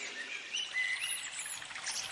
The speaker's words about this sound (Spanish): En ella vamos a ver muchos árboles y plantas, flores, el canto de los pájaros, el perfume de las flores, de la brisa y de los árboles.